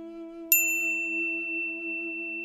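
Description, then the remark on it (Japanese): A single bright notification chime from Soma's mobile phone rings out once, sharp and clear, then fades, over a steady low electronic hum. No one speaks. “相馬の携帯電話に通知が表示された彼は通知画面をさっと見て黒田に断りを入れてそれに目を落とした”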